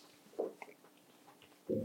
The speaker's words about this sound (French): Moi, j'ai goûté les deux, là. Je suis en train de manger le poulet.